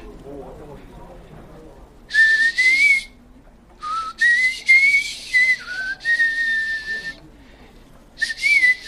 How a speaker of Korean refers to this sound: 저 휘파람 소리는 목소리가 낯설질 않아.